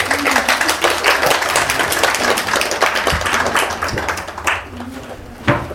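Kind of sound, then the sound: crowd, prolonged applause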